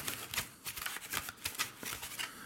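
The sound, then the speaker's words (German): Quick, repeated papery flaps and crisp rustles in an irregular rhythm, fairly soft, as a folded paper fortune teller is snapped open and shut several times. “Freunde, hier hört ihr den Schnapper.”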